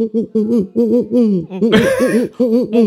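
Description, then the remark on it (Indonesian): A voice imitates an owl with a rapid run of about half a dozen wavering hoots, fairly loud, and a brief breathy rush of noise midway through. “Burung hantu.”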